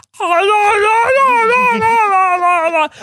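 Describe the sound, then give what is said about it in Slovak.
A person imitates a dog's drawn-out howling whine, the sound the dog makes instead of barking, one sustained wavering wail lasting nearly three seconds, fairly loud, with no talking. “Lebo pes okamžite akože je zle psychicky. Že on začne hulakať a on nešteká.”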